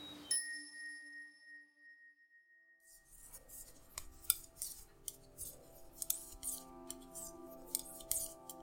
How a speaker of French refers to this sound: Entends-tu le cliquetis des aiguilles à tricoter Une maille à l'endroit, une maille à l'envers, une maille à l'endroit, une maille à l'envers.